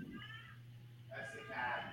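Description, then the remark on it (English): A cat lets out a long, drawn-out meow that rises into a wailing, almost baby-like cry, loud, over a steady low hum. “Oh, it's the cat like, the hell is happening?”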